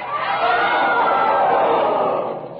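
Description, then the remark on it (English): A large crowd at a burning roars in protest as the executioner lights the fire: a sustained, dense wash of many voices shouting together, loud and steady for a few seconds before easing slightly at the end. “The crowd has reacted in one great convulsive protest, and for a moment they're quiet, and then they begin to shout their aware that they have made a catastrophic mistake.”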